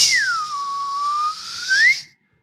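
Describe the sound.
A person imitates a father's distinct, bird-song-like whistle summoning the family downstairs: a single loud, sustained call whose tone swoops down in pitch, holds steady, then sweeps back up before cutting off, with no talking.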